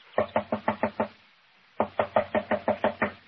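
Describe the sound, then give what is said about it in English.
Two bursts of firm, rapid knocking on a locked wooden door, about six raps each, separated by a short pause; loud, with no voices. “She must be out. Door's locked. Knock again, if you don't mind.”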